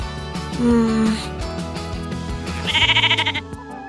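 A sheep bleats loudly, a drawn-out call followed by a shakier, wavering bleat, with a steady tonal background underneath.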